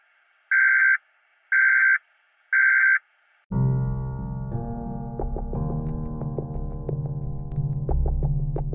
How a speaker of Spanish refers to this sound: Acabas de escuchar la alarma que suena cada vez que alguien habla mal del presidente. Esa alarma anuncia que a partir de ahora nadie puede salir de sus casas, ni por una emergencia.